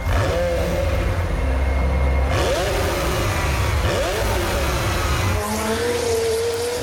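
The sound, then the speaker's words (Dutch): A warm McLaren sports car engine revs up and down repeatedly, loud, with rising and falling pitch sweeps over a steady low rumble and no talking. “Nee, dat geluid moet ik even van internet halen. Dan hoor je de warme auto's.”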